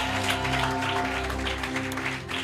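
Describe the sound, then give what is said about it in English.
A church audience at the Aloga Junction branch applauds the Bantama branch with dense, continuous clapping, while sustained low keyboard or organ tones hum underneath throughout. “Oh, let's give them a round of applause.”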